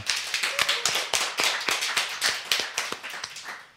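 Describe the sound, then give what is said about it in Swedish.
The audience of the radio programme Radio Total Normal applauds, with crisp overlapping claps in a brisk, fairly even patter that holds steady for several seconds. No voices are heard over it. “Alla här är glada och applåderar”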